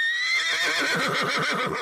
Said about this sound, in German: Und zum Schluss ist noch die Rede von einem weiteren, den wir in Japan auch nicht sehen werden. Ein Pferd